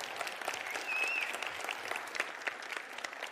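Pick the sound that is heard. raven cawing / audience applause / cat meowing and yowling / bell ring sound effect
audience applause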